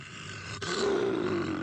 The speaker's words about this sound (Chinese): 凄厉的狮吼声持续回荡在丛林里，所有的动物都竖起了耳朵。